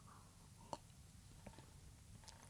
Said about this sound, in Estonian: siis äh, jätkan seda, mis sa teed, ma annan endast parima, joon näiteks vett praegu.